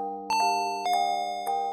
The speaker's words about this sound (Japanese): A さんは自分の真上の部屋に誰が住んでいるのか知らなかったが、呼び鈴を押した。